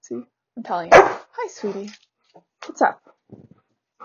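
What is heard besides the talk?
dog barking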